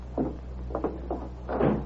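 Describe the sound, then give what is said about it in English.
A door opens as a visitor who was waiting outside comes in. Four quick bursts of creaks and clunks over about two seconds, with a steady low hum underneath and no one speaking. “He's waiting right outside the door. I'll tell him to come in.”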